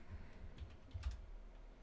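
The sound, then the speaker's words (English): Soft, quick clicks of someone typing on a computer keyboard, a short irregular burst of keystrokes with a slightly louder tap near the middle, heard alone with no talking. “If my keyboard will work.”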